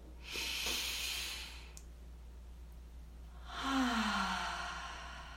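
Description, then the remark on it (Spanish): Slow, deep breathing with eyes closed, slowing down through the breath: a long airy inhale followed after a pause by a drawn-out exhale, with no talking. “Así que vamos a mantener nuestros ojos cerrados y vamos a respirar profundamente.”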